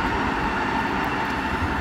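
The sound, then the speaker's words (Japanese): A train rumbles past outdoors in the morning, a loud, steady roar of wheels and engine with a low rumbling undertone filling the whole stretch. “ちょっと電車が通ってうるさい かもしれないんですけれども”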